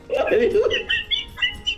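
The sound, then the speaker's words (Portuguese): A bird squawks: a harsh, voiced cry followed by several short, shrill, high-pitched squawks in quick, uneven bursts. “aquele pássaro do Up lá. Puta burro, hein, meu? Caralho! Não sabe ficar quieto, caralho!”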